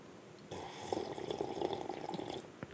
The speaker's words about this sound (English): And this week I brought coffee. Good job. Oh, that's some ASMR right there. Ooh. Live from Master Closet Studios, you're listening to the only podcast on the internet that slurps its coffee.